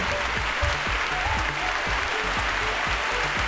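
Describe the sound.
A voice imitates a crowd's applause, producing a dense, steady hiss of clapping-like noise that continues evenly for a few seconds, fairly loud.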